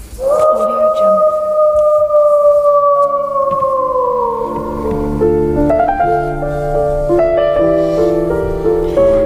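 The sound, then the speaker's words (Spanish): A long, loud wolf howl at night from a wolf prowling the forest near the town of Gubbio, holding a steady pitch and slowly sliding downward over several seconds, followed by layered sustained tones that continue to the end. “De noche podían escuchar al lobo rondando por el bosque.”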